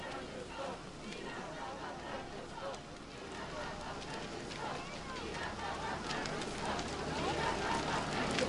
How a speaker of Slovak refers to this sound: A v týchto chvíľach vychádza svätý otec František z lietadla a schádza pomaly po schodoch. Počujeme aj hlasy, kde v taliančine Slováci vítajú Nech žije svätý otec František. Víva pápa Francesco.